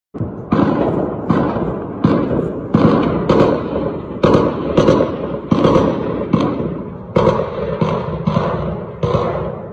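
A steady barrage of loud gunshots and blasts crackles irregularly in Khartoum, Sudan, during clashes between the army and a paramilitary group, more than a dozen sharp reports echoing off surroundings with no pause, no voices heard.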